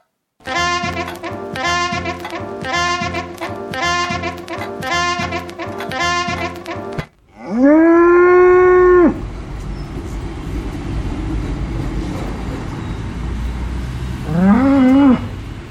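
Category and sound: animal, cow mooing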